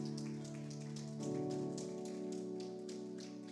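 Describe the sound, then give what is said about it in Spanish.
An audience claps steadily for the Lord, a dense crackling wash of applause that holds for several seconds over sustained keyboard or organ chords. “Dele ese fuerte aplauso al Señor en esta hora.”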